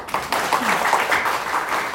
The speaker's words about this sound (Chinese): 是不是给我们伊丝碧媞一个热烈掌声？